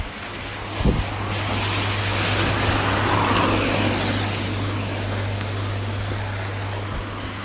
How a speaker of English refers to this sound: I don't know if you can hear, but when I started my run, it was just a bit drizzly. And now, yeah, it's absolutely pouring it down and I'm soaked.